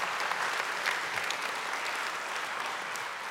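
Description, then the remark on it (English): A church audience claps together in steady, dense applause, celebrating families and their babies at a parent and child dedication. The applause holds at an even level throughout, a bright wash of many hands with no voices standing out. “Let's give these families a round of applause as we celebrate them and their babies.”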